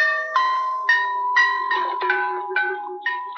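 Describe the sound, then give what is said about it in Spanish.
Members of a band tune their self-made, water-filled glass instruments before a concert: about eight bright, bell-like taps in quick succession, each ringing on and overlapping the next, with the pitch shifting slightly between strikes as changing the water level changes the tone. No one speaks. “Como en cualquier orquesta, los músicos se preparan para un concierto afinando sus instrumentos.”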